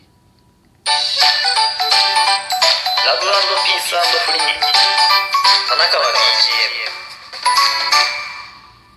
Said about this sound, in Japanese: これ音量注意やんな、絶対これ。びっくりするよね。もう、もうでもだんだんこのジングルも板についてきたというか、いい感じになってきたんじゃないですか